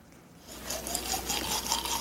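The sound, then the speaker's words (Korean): Someone brushes their teeth with the mouth rounded, a toothbrush scrubbing briskly back and forth in quick, even strokes, a steady hissy, wet brushing rhythm that starts after a brief quiet moment and continues without any talking. “아, 약간 입을 동그랗게 하고 양치를 하셨나봐요.”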